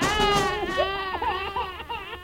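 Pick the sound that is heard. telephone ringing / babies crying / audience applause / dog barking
babies crying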